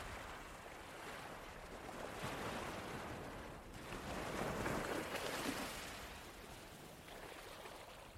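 Ocean waves wash continuously onto a beach of fine sand bordered by trees and vegetation, swelling and receding in broad surges with a steady roar of surf and a little wind noise, no voices present.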